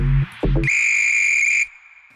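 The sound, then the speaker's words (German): A single loud, sustained whistle blast, shrill and steady for about a second, like a referee's whistle, preceded by a couple of short low tones. “pfeif den Podcast an zu einer neuen Folge Kick and Quatsch”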